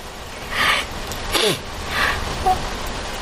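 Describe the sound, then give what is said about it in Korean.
Three short, breathy sniffles from a mother crying with happiness, spaced about half a second apart and moderately loud, with faint background hiss and no talking. “그때 어디선가 훌쩍거리는 소리가 났다.”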